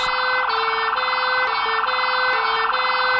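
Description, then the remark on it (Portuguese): A loud, continuous fire brigade siren wails around half past two in the morning on Rua Henrique Lage, following an explosion, its pitch stepping rapidly back and forth in a steady alternating pattern with no voices. “Mais ou menos às duas e meia da manhã, o estrondo e o tremor provocados na rua Henrique Lage, seguidos das sirenes dos bombeiros, acordaram muita gente do centro e dos bairros próximos.”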